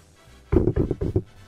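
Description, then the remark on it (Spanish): A quick series of about five dull, solid knocks on a door, made one morning by a wealthy customer of a high-end car seller, in a rapid uneven rhythm, moderately loud, followed by quiet. No one speaks. “se iba todos los días a las 8 de la mañana a su oficina y eh, una mañana una de las pocas personas que podía comprar esa alta gama de autos tocó la puerta.”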